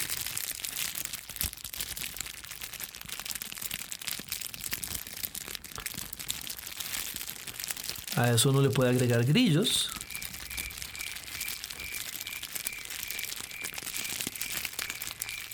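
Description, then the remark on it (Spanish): A cellophane bag is crumpled slowly to mimic a crackling campfire, giving a steady dense crinkle throughout, with a brief burst of speech in the middle and a faint high whistle-like tone afterward. “Obviamente ya ustedes visualizaron la bolsa.”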